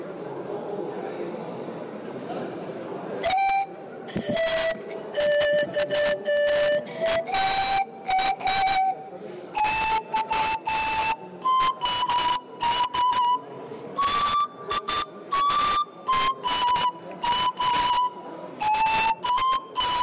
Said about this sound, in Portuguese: O pastor, va a mostrar os seus dotes agora com instrumentos diretamente do Peru.